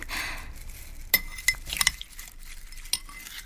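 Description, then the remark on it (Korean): A worn-thin metal spoon clinks against a bowl of doenjang soup several times, sharp little taps scattered across a few seconds, fairly crisp over a faint hiss, with a soft scrape between as it presses down on the solids. “다 달아서 얇아진 숟가락 머리를 천천히 국그릇으로 가져갔다.”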